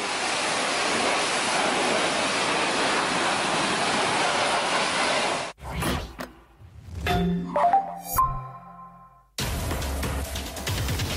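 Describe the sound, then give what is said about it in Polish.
A powerful jet of water from a hose roars loudly and steadily for several seconds, then breaks off for some brief tonal sounds before the rushing spray returns. “który znakomicie radzi sobie e, z tym e, wężem i z tą wodą”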